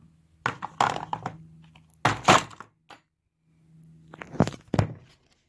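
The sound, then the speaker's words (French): Ice cubes being twisted and knocked out of a tray with some difficulty: several hard plastic cracks and thunks in clusters, with a low creaking hum between them and no talking. “Ouh, n'arrive pas bien les démouler.”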